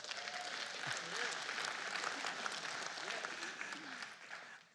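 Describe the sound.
A crowd claps steadily for several seconds at the mention of a couple's coming 38th year of marriage, a dense, even patter of many hands that thins and fades at the end, with faint voices murmuring underneath.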